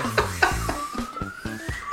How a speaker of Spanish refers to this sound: Eh, una alarma, por lo menos. sí, esa.